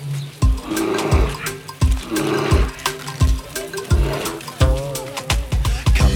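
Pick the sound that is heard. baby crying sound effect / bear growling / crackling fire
bear growling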